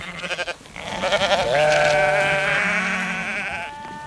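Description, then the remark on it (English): A loud, drawn-out bleating wail from a sheep screaming on Wheaton's Island, with the wind from the southeast, rises and wavers for several seconds, preceded by a few short quavering bleats, sounding distressed with no one speaking. “After a long day of hauling traps, Captain Edwin and I were coming ashore from the mooring and heard a bleating wail of distress from Wheaton.”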